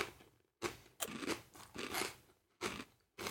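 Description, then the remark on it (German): A crunchy fortune cookie being cracked open and bitten, several sharp crunching bursts in a quick irregular series, with brief pauses between them and no talking. “mir ist ein Paradoxon im Keks gewesen.”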